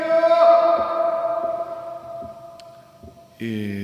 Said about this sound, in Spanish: Hay cosas chidas, por ejemplo, que tengo una sala de squash donde poder hacer mi podcast, por eso suena el eco. ¡Eco!